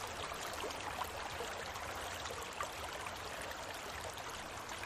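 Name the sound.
flowing river water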